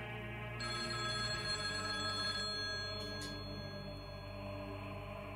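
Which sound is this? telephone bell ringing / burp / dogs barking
telephone bell ringing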